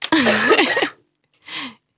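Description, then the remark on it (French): Two loud coughs: a long, harsh, rasping one followed after a brief pause by a shorter, softer cough, with no talking. “j'avais beaucoup tousser, je crois.”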